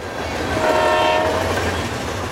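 A train rumbles past with a steady low roar, and a sustained horn blast sounds briefly near the middle before fading back into the rolling noise of the cars.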